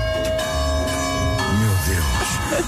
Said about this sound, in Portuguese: Se vestissem o 42 Copa C, saberiam bem qual é a sensação de ter dois sinos de igreja a tocar a cada 15 segundos.